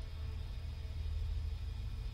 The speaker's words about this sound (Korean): 움직이지 않는 팔을 간신히 들어 길을 돌리자 적막한 가운데 엔진 소리가 울려 퍼졌다.